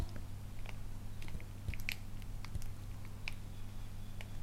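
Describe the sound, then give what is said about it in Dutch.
Faint, scattered bird chirps from outside, short high peeps at irregular intervals over a steady low hum and a few soft clicks. “Oh, hoor je de vogels?”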